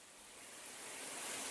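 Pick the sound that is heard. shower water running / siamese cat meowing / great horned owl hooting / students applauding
shower water running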